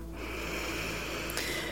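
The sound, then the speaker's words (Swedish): A long, steady, deep inhale drawn in through the nose during a breathing exercise, airy and hissing, heard on its own without any talking. “En gång till andas in ordentligt genom näsan.”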